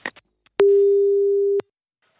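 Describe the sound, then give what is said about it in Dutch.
A telephone ringback tone sounds once as BNR Nieuwsradio places a call: a steady, mid-pitched, fairly loud beep lasting about a second, framed by small clicks, with near-silence afterward. “Laten we eens even gaan bellen.”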